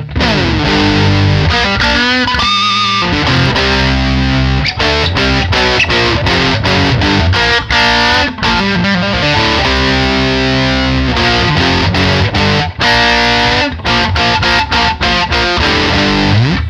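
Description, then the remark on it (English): An electric guitar played through a high-gain overdrive pedal, loud and saturated, with chords and sustained notes in a steady riff, no voices. “I think this thing just does a really great job of being a higher gain uh, green cell overdrive.”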